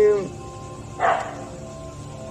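A dog barks in short, sharp bursts, about three barks spaced roughly a second apart, moderately loud against a low background hum.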